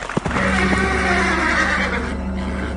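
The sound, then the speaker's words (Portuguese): A horse neighs loudly in one long, wavering whinny that lasts a few seconds, with a steady low rumble underneath and no talking. “Olhei e vi um cavalo amarelo.”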